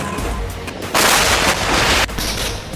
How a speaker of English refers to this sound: During the exercise, tanks, artillery, and helicopters all open fire. Soldiers storm the beaches.